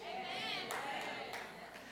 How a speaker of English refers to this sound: Thank you for the five claps.